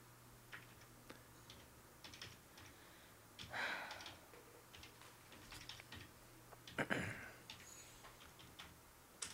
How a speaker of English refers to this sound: I hope I hope nobody can decode the audio of what keys I was hitting there.